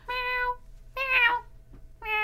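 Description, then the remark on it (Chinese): A person imitates a cat, giving three loud, drawn-out meows with a clear harmonic, nasal tone, separated by short pauses. No other talking is heard. “好了，我要学猫学猫叫了。”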